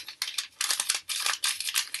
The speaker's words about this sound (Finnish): Suurieleisesti rapistelemme tässä mm-hmm. näitä arvontalappusia.